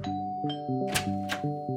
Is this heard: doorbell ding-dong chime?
yes